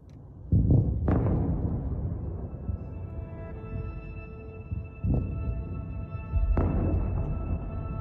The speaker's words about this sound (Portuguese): diz que acordou ao som das explosões por volta das 5 da manhã. Foi um estrondo enorme, foi um barulho enorme. Ouvíamos tiros de artilharia e o estrondo das bombas.